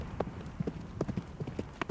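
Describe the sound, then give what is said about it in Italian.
Horse hooves clip-clop on a hard surface in a steady, uneven gait as a horse is ridden through the night with loose reins, a string of sharp knocking hoofbeats heard clearly, with no talking over them. “Lasciò le briglie sciolte sul collo del cavallo e cavalcò nella notte come un fantasma”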